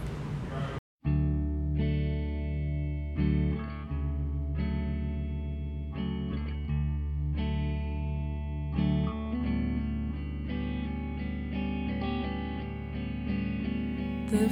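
A recorded song plays at a steady, full level, led by sustained, effects-laden electric guitar chords. A brief silent gap comes near the start before the music resumes and continues throughout.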